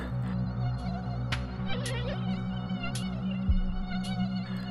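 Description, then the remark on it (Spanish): A dense, continuous buzzing of many flies swarming, a steady droning hum with wings whining in and out as individual insects pass, with no voices. “dejándolos cual envases vacíos que ponían a acercar al sol, con nubes de moscas rodeándoles, oreándose cual reces en putrefacción.”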